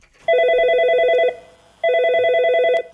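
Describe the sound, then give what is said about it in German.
A telephone rings twice in a Frankfurt police reenactment of a shock-call scam, each ring a steady electronic trill lasting about a second, separated by a short pause; loud, with no voices. “Die Frankfurter Polizei hat mal nachgestellt, wie so ein Schockanruf sich anhören kann.”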